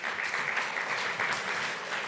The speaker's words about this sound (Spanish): Denle un fuerte aplauso al Rey de la Gloria.